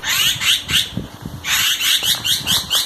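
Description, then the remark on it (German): A bird gives a harsh, rasping alarm call, a rapid series of scratchy notes in two bursts, fairly loud, with no talking. “Egal ob Amsel, Kohlmeise, Spatz oder Krähe, die Warnrufe der Vögel sind quasi international.”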